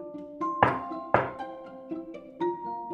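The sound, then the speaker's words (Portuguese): Two heavy, hollow knocks on a door, about half a second apart, ring out over a soft, steady musical tone that continues underneath with a few gentler notes. “O lobo não demorou muito a chegar à casa da avó. Bate a porta.”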